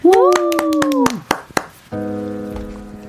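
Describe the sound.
Scattered audience clapping, called for as a live music performance begins, rattles along under a voice's sustained whooping cheer, thins to a few claps, and then a steady sustained musical chord begins.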